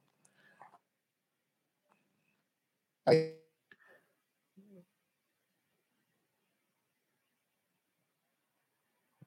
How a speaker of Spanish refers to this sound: se, se, desconectó como un poco tu micrófono, se escucha como medio ahí con un falso.